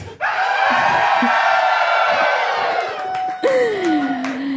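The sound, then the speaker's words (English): A large audience screams and shrieks loudly and continuously, a dense wall of crowd noise with a few high individual voices rising above it near the end. “And with that sound of screams, Pee Wee put on his bike helmet and rode out of the playhouse.”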